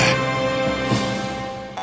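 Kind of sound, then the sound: jaw harp twanging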